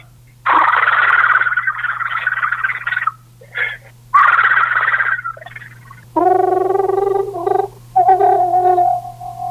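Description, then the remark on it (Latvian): A person imitates a green toad's call, making long rolling, purr-like trills in several bursts, followed by higher voiced, warbling trills. “Dziesma līdzīga arī milzu krupie dziesmai, arī līdzīga, bet daudz garāk skan tā skaņa.”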